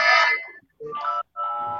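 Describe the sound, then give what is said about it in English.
An electronic doorbell rings in three bright, tonal bursts, each a sustained chime with a short gap between them, sounding fairly loud with no one talking. “I was gonna say we got doorbells going on.”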